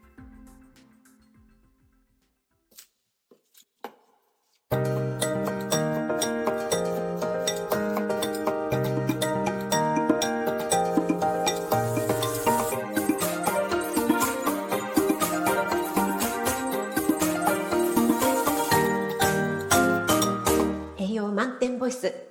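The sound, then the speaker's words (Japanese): After a few quiet seconds, a lively musical jingle bursts in, layered with bright, tinkling chime notes that sparkle over a full, steady backing until it ends abruptly; the jingle was made by joining recorded cooking sounds, such as something being boiled. “ということで、えー、聞いてください。職人さんのジングルです。”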